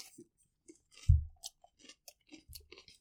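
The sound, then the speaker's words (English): A crisp bite into a raw poblano pepper, followed by a few moist, irregular chewing crunches. The bite is loud, with no talking. “That was a crunchy bite.”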